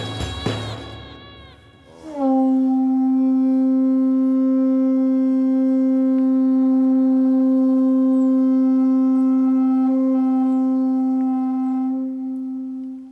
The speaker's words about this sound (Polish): Dźwięk konchy zrobionej z wielkiej muszli ślimaka przywołuje na praktykę tumo w ośrodku buddyjskim w Wildze.